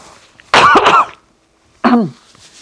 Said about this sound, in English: a tickle in your throat, which is what I have right now, which is making it harder for me to say it. So let me cough the tickle out